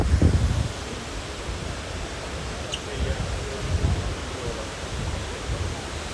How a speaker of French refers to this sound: Voilà, voilà. Ça, c'est le bruit de la fontaine de Trévis.